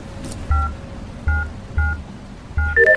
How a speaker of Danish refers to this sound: Og jeg har min garage her. Koden kan du lige kigge væk et øjeblik, mens jeg lige taster koden?